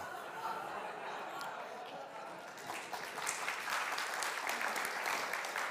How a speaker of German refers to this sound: Das ist dein Applaus.